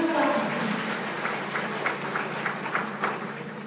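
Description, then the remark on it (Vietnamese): An audience breaks into steady applause, a dense wash of many hands clapping at moderate volume, with a few sharper claps standing out as it continues throughout. “Cho chị cho bàn tay thật lớn được không ạ?”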